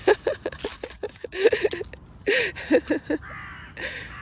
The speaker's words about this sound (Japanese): この時間カラスが